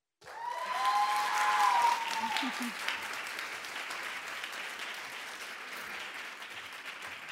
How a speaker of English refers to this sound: I was not expecting that. You're supposed to wait till the end to clap.